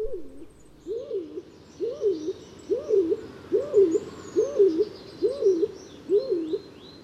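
A stock dove gives a steady run of about eight low, hollow coos, evenly spaced, with faint higher birdsong twittering in the background.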